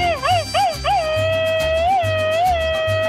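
A loud, high-pitched Mexican grito in the famous machine-gun (ametralladora) style, given on a Spanish-language radio show: a quick rapid-fire burst of yelping, warbling cries, then one long sustained wail with slight wavers, over a steady low pulsing background.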